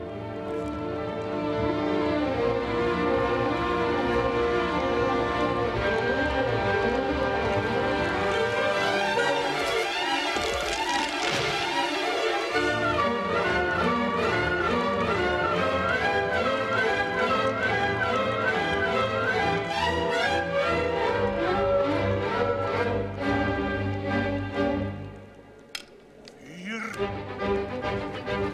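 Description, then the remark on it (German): Dense orchestral opera music, swirling and dramatic, illustrating a gruesome scene in which gorge walls threaten to collapse, with wavering sustained lines and loud, full textures throughout, briefly thinning out and dropping in volume just before the end. “Also wir haben hier wirklich eine Musik die Handlung eins zu eins illustriert und vorgibt.”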